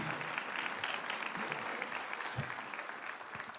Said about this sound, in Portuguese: Então vamos receber a minha querida esposa e namorada, por sinal, dia dos namorados. Uma forte salva de palmas, amém?